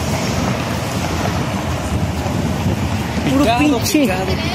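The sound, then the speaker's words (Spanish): Steady, loud rushing of wind and churning water of a choppy sea, with a voice briefly cutting through near the end. “puro pinche, mar bien picado, como sus traseros culeros.”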